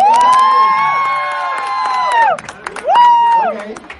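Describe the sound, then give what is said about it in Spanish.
An audience cheers and applauds for Wonder Woman: a loud, high sustained whoop holds for about two seconds, drops away, then a shorter second cheer rises over a steady patter of clapping. “Pues, aplauso para Wonder Woman.”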